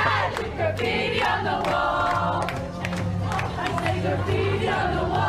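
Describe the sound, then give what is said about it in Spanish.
A crowd of voices shouts and chants together over steady, loud low-pitched music, sounding like a lively party with group cheering throughout. “Bueno, tremenda fiesta, ¿eh?”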